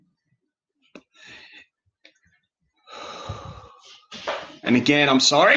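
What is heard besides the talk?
coughing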